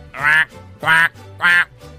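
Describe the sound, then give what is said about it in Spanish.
Three loud, nasal duck quacks in a steady rhythm, each about a third of a second long, with brief quiet gaps between them and no talking. “Y ya estaba ahí cazando patos en Estados Unidos y le pegó un pato.”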